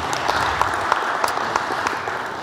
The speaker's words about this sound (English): Those of that are watching us uh, online, God bless you. Let's clap our hands and appreciate everyone that is watching. Amen.